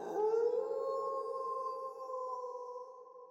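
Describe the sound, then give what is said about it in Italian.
A single long dog howl, rising at the start and then holding a steady, mournful pitch for about three seconds, fairly loud with no voices. “dice Giovanni, e alla terza latravano come i cani”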